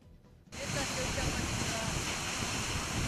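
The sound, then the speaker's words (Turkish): The Düden Waterfall roars as it pours into the Mediterranean Sea at Lara, Turkey, a loud, steady rush of churning water that bursts in after a brief moment of near silence and holds constant throughout. “Düden Şelalesi'nin Akdeniz'le buluştuğu Lara'da akan su ve yüzeye bıraktığı kirlilik yeniden arttı.”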